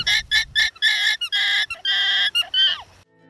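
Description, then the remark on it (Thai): An alpaca calls in a rapid run of loud, nasal, honking cries, about eight bursts of varying length, the last sliding downward in pitch before it falls quiet. No one speaks. “น้องๆครับแขกรับเชิญของเราในวันนี้มันก็คืออัลปาก้าครับ”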